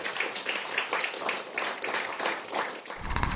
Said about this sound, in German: Und jetzt, jetzt gerne Applaus.